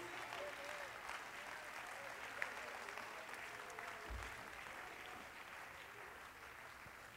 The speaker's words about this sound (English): Clap your hands to the Lord, give God praise.